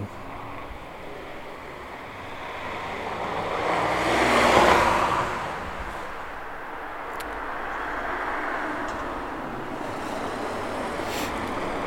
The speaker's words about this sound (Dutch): Hé, hey, daar nou komt een auto.